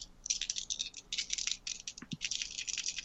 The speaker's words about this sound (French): Brasse mes dés. Brasse mes dés.